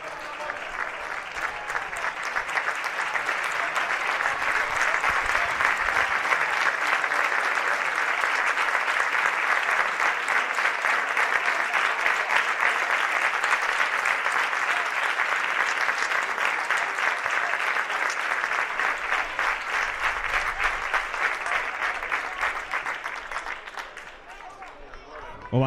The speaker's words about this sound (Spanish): Se va a retirar Miguel y Lolo, vamos a escuchar la ovación del Álvarez Claro.